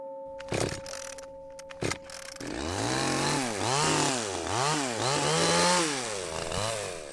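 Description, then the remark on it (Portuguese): A chainsaw cuts through strawberry tree logs beside the road through Pardieiros, in the parish of Alferce, opening with a few sharp knocks and a steady idle hum before the engine roars up, its pitch surging and dipping in repeated waves as it bites. “À beira da estrada que passa pelos Pardieiros, na freguesia de Alferce, António Santos corta alguns troncos de medronheiro.”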